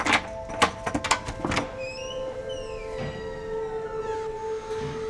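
A quick run of sharp clicks and clunks as a door is unlocked, then a drawn-out creak as it swings open, all over a steady low mechanical hum with no one speaking.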